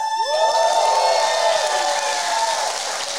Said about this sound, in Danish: Og hvor mange af jer, der klappede, er egentlig jyder?